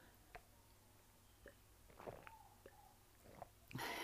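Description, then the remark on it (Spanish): Quiet mouth sounds: a few soft sips and a gulping swallow of water, with small wet clicks spaced out, then a brief louder rustle at the end. No one speaks. “perdón, déjenme dar un traguito de agua.”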